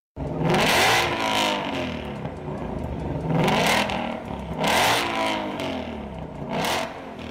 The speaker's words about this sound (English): The pistons fire unevenly 1, 8, 4, 3, 6, 5, 7, 2, left, right, right, left, right, left, left, right, burbling, bubbling, like a pot beginning to boil. Listen, this is a Ford Mustang GT500, the cross plane sibling to the GT350.